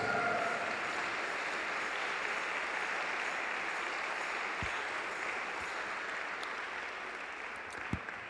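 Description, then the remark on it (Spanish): A large gathering claps for Jesus for several seconds, a dense, even wash of applause that holds at a constant level and eases slightly toward the end, with no one speaking. “Si vas a aplaudir, apláudele Jesús.”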